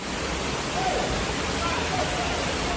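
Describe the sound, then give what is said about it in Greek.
A steady, dense roar of torrential rain and rushing floodwater fills the whole stretch, loud and continuous with no breaks, as a severe storm with hail hits Kozani and its streets turn into rushing torrents. “Η καταρακτώδη βροχή στο και αποχαλάζει ενώ οι δρόμοι μετατράπηκαν σε ορμητικούς χυμάρους.”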